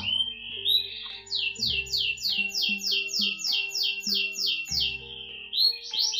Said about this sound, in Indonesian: Burung pun berkicau seolah memberikan semangat untuk memulai kehidupan ini tanpa untuk menghentikan kehidupan ini.